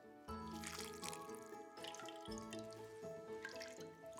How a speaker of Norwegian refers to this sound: So the next thing to do is to drain the buttermilk. Then I will remove the paddle and then scoop out all of the butter.